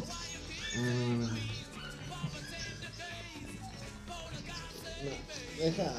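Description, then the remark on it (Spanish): High, wavering whimpers and little yips from puppies come in repeated bursts throughout, with a voice murmuring underneath. “Me mata ver los cachorros así.”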